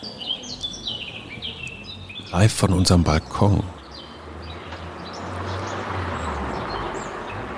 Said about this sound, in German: Und man hört sogar, wie ein Auto über die Straße fährt. Aber ist der Mönchsgrasmücke, eine Mücke, die ein Vogel ist, äh, völlig wurscht?